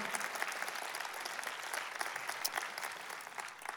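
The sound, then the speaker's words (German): Steady applause from an audience, a dense crackle of many hands clapping at an even level for a few seconds, with no voices standing out. “Lasst uns einen großen Applaus geben.”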